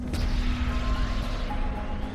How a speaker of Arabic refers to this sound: تخيل بقى يا مستمع إن جسم وزنه 2 طن ماشي بسرعة 259200 كيلو في الساعة ايه اللي بقى هيحصل لما نيزك زي ده يصطدم بالقمر هيحصل انفجار مهول على سطح القمر زي اللي انت بتشوفهم في الانمي